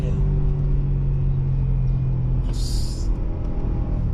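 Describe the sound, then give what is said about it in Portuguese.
A V8 engine of a 540 Protection car rumbles loudly, holding a deep, steady growl throughout with a brief hiss partway through. “Olha isso. V8 é vida, meu Deus do céu.”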